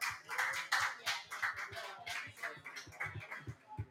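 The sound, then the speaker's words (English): A steady round of applause from a group of people for the Baldwinsville Bees boys lacrosse team, back-to-back state champions, many hands clapping together in a dense, continuous patter that stays fairly loud throughout, with no one speaking over it. “Please give them a round of applause.”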